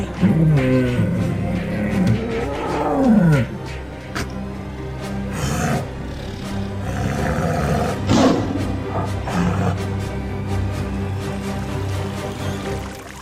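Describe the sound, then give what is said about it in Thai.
Big cats, a tiger and a lion, roar and snarl at each other in a loud, continuous exchange of overlapping growls without pause, with no talking; the two are quarrelling, their voices filling the forest. “สิงโตไม่ยอมแพ้ จากนั้นการโต้เถียงก็ได้ดำเนินไปอย่างรุนแรงขึ้นเรื่อยๆทั้งเสือกโครงและสิงโตต่างแผ่เสียงเถียงกันลั่นป่าแต่ก็ยังหาข้อยุติไม่ได้”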